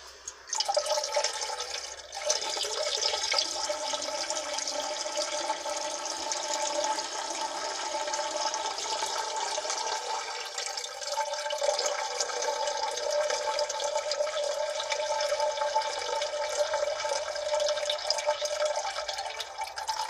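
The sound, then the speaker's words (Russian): A new, wide toilet flushes with a steady, loud rush of water that continues without a break for about twenty seconds, with trickling and dripping mixed into the flow. No one speaks. “Так, вот он звук моего нового унитаза.”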